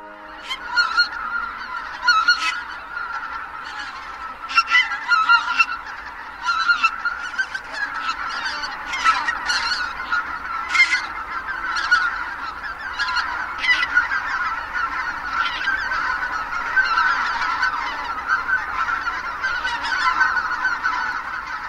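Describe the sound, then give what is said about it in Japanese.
A large flock of greater white-fronted geese calls continuously, many overlapping honks and yelps forming a dense, steady chorus with sharper individual calls standing out, no talking. “マガンはカモの仲間カラスより大きく体全体が茶色や黒の細かい模様に覆われています宮城県カブクリ沼はマガンのねぐらです夕方になると数万羽ものマガンが集まってきます”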